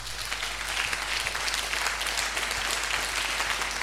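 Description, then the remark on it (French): A crowd at a religious gathering claps and cheers continuously to acclaim the Holy Spirit, a dense wash of many hands with voices mixed in, steady and fairly loud throughout without a break. “On va acclamer encore une fois le Saint-Esprit.”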